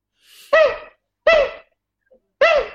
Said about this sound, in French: C'est une marmotte, ça. C'est une marmotte.